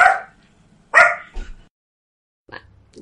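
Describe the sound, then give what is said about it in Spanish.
A dog barks in two sharp, loud bursts in the background during a recording, followed by a short softer yip after a pause; no one speaks over it. “Te voy a encerrar, ¿eh? Porque escuchar esto de fondo no es muy normal.”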